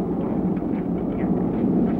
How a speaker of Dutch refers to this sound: Is dat een vliegtuig, jongens? Ja. Oké, okay, daar gaat hij hoog. Zie je? Hier? Zie je, oh, ja. ja. daar gaat hij, daar gaat hij.